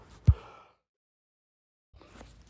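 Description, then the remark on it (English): A single sharp cough bursts out and quickly fades into silence, followed by a soft, breathy exhale about two seconds later. No one speaks. “excuse me, coughing again.”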